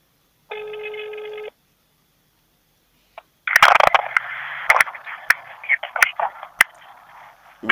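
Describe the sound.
A single steady, buzzy ringback tone sounds for about a second during an outgoing call to the secretary of Yulia Borisovna Zyryanova, then silence, followed by crackly phone-line noise with sharp clicks and a muffled voice over the line.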